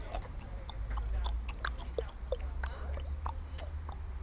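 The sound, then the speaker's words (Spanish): A voice imitates a horse's hoofbeats with a quick, steady series of tongue clicks, fairly quiet, over a low background hum. “Con gesto viril apura su caña y se acerca a Mario y Adora, haciendo con la boca el ruido de los pasos de un caballo.”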